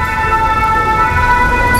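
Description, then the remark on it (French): Busy traffic of many cars and taxis on the Cours Gambetta rumbles steadily and loudly, with a sustained, steady-pitched siren or horn tone riding over the engine noise throughout. No one speaks. “Il y a beaucoup de voitures là hein, quand même.”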